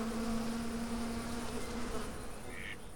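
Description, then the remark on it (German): A steady, droning insect buzz hums continuously, with a clear tonal whine holding for most of the stretch before fading slightly near the end. No voices are present. “Damit es dann hoffentlich bald wieder so klingt, wenn wir dann draußen unterwegs sind.”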